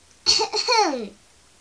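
A child clears their throat once before starting to teach a lesson: a raspy, breathy burst that slides into a voiced, falling 'ahem,' lasting about a second, fairly loud and alone with no talking.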